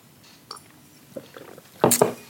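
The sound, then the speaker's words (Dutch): Wet sipping and swallowing sounds as people drink water after a toast: a few soft, scattered gulps, then a louder, splashy slurp near the end, with no clear speech. “We zijn eigenlijk water aan het drinken, maar het is oké.”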